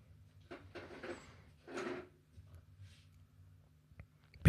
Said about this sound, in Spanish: perdón por el ruido, es el ruido del, del reposapiés. No me había dado cuenta.